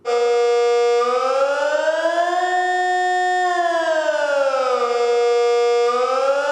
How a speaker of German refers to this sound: Es ist jedes Jahr das Gleiche. Am ersten Mittwoch im Februar testet die Kantonspolizei die Bündner Alarmanlagen. Und zwar via Fernsteuerung. Zuerst der allgemeine Alarm.